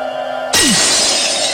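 A sudden loud smash of a vase, thrown and striking a person's face, after a short quiet hum, followed by a bright, sustained spray of shattering ceramic shards that rings on to the end.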